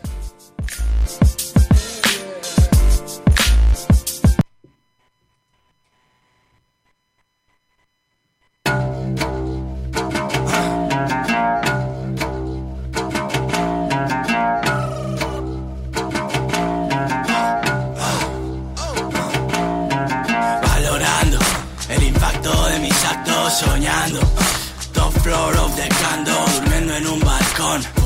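A Spanish rap track plays loudly with a heavy, punchy beat and dense layered production. It cuts out briefly near the start, then returns and runs continuously to the end.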